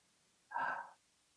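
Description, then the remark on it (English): A single deep breath drawn in, a soft airy rush lasting under half a second, fairly loud, with quiet before and after. “So what what the term Yahweh is is the sound of breathing. So if you inhale”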